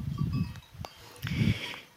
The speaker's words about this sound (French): Et euh, donc on est chez des amis qui sont bergers pour, euh, pour la saison, qui gardent un troupeau de, de brebis laitières. Et donc en fait ils s'occupent pour 2-3 mois de, de les faire pâturer dans leur, leur quartier, de les traire.